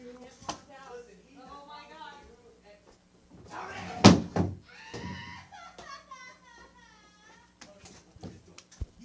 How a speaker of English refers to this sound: All right, I'm gonna go lock the door. Hold on.